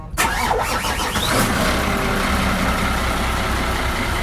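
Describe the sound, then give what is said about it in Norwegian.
A motorboat's single engine cranks and catches, then settles into a loud, steady low rumble that continues to the end, with no voices. “Eller så har vi da i dette tilfellet motorbåt, og det kan være så mangt.”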